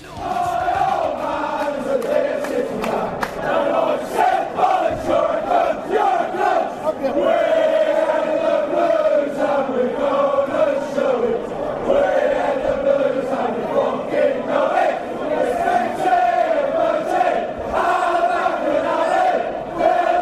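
A large crowd of Villans football supporters sings a chant about their rivalry in unison, loud and sustained for the whole stretch, with rhythmic rising and falling phrases and no spoken voice over it.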